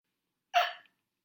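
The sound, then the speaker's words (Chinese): A single short hiccup after eating gelato and tiramisu, a quick voiced gulp with a breathy tail, standing alone against silence and fading out within a third of a second. “打嗝了。”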